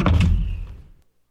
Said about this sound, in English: Toad ran home and slammed the door.